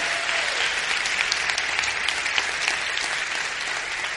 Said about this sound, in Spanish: Así que vamos a darles un aplauso a todas estas personas que se conectan.